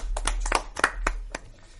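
Brief, scattered applause for three guest comedians: a handful of sharp, irregular hand claps at moderate volume over a low steady hum, thinning out toward the end, with no one talking.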